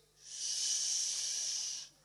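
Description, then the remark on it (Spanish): A single drawn-out "shhh" shushing hiss, steady and fairly loud for about a second and a half, made by a voice demanding quiet, with no talking around it. “Vos entrás a un, a un, a un eh, cementerio y si gritás un poquito, de la lápida de enfrente te dicen,”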